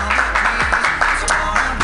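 An audience at a comedy show claps steadily for a couple of seconds, a dense, even patter of many hands at a fairly loud level, with no voices standing out.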